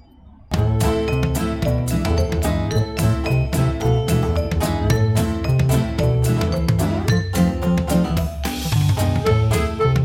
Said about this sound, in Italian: i campanacci delle mucche in sottofondo e l'autostrada